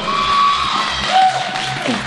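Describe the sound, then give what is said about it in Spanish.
An audience claps steadily and loudly for about two seconds before a live music performance, with scattered cheers and a couple of sharp, high whistles cutting through the dense applause. “Que se oiga fuerte ese aplauso y vámonos con música en vivo.”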